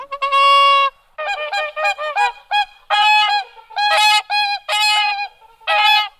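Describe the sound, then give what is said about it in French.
A swan calls loudly with a long, bugling note, then a quick series of shorter, nasal honks in an uneven rhythm, rich and trumpet-like, with no voices. “C'est-à-dire, grosso modo, on dit qu'au moment de mourir, les signes font entendre un chant admirable.”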